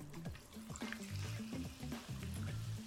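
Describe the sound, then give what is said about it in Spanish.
Mineral water poured into a glass close to the microphone, a steady gurgling trickle with rising bubbly tones as the glass fills, no voices. “Miren, voy a acercar aquí al micrófono cómo se va escuchando la agüita mineral, nomás para que se les haga agua a la boca.”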